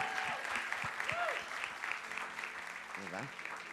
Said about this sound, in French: OK, bravo, bravo. Est-ce qu'on peut acclamer ces personnes-là